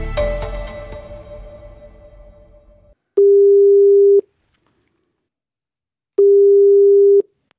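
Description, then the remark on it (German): A telephone ringback tone while a call connects: two long, steady, clear beeps about a second each, separated by a two-second pause, following a fading resonant hit. “Und an dieser Stelle steige ich auch aus und deswegen würde ich jetzt gerne den Telefonjoker ziehen.”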